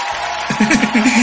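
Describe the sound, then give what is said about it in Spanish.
A voice shouts somewhere in the background. It's a wavering, drawn-out cry that starts partway through and carries on to the end, over a steady hiss of room noise. “Escuché grito de alguien.”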